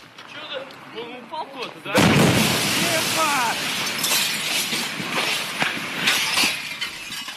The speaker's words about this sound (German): So hört sich das heutzutage an. Wenn die Druckwelle eines zerplatzenden Meteoriten eine Fensterscheibe zerbersten lässt. Das war eine Originalaufnahme vom 15. Februar 2013 aus der Großstadt Tscheljabinsk in Russland.